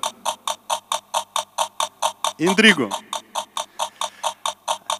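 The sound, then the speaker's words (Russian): The timer of a toy bomb party game ticks in a fast, steady mechanical rhythm, about four clicks per second, as the bomb is passed from hand to hand while players call out words. A brief spoken word cuts in midway while the ticking continues. “Знаете, в чем фишка этой бомбочки? Никто не знает, когда она взорвется. То есть она тикает и создает определенную”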